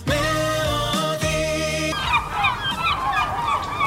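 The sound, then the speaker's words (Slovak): A steady, droning tone gives way to a busy jumble of loud, squawking seagull calls, several birds crying over one another, with the noise of the sea and no talking. “Toto môže byť za istých okolností celkom príjemný zvuk. A. Čajky, do toho šum mora.”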